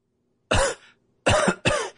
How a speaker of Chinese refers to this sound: 厉叶一阵剧烈的咳嗽。